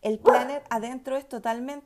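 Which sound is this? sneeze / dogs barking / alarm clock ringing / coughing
dogs barking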